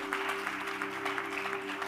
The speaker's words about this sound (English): Is that how you clap for that miracle?